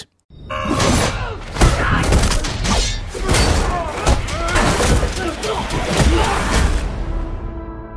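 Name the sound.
song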